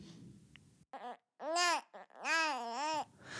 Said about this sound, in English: The baby starts to cry, and that's when you hear footsteps coming fast.